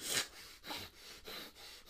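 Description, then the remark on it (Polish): A person imitates the snorting, labored breathing of a flat-faced pug or bulldog when running: a quick, steady run of about six raspy, wheezing breaths, fairly loud, with no talking. “Jak one biegną, to ma, przez to, że mają takie płaskie pyszczki, im się trudniej oddycha i one potem takie...”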